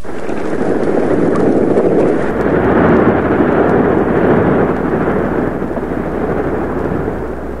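A continuous, heavy roar of sea waves on the surface of the sea, loud, with a dense rumbling wash that swells and churns steadily without pause and no voices.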